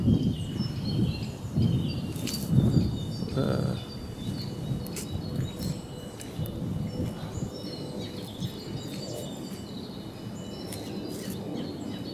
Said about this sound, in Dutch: Goh, een boel vogels, hè?